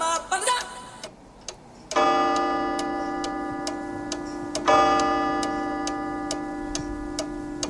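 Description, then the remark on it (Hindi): A Radio Sangam time-check jingle of steady, crisp clock ticks, joined by bright sustained chime-like tones that ring out and are struck again partway through while the ticking continues. No one speaks. “This time check is brought to you by Radio Sangam ji time check कर लेते हैं ग्यारह बजकर ग्यारह मिनट और पचास सेकंड हुआ चाहते हैं”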